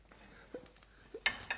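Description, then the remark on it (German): A frying pan that had held bratwurst is wiped out and handled: soft rubbing and scraping, then a bright metallic clink and a smaller knock of cookware. No voices. “Hm, ist die Pfanne gut ausgewischt? Da war Bratwurst drin.”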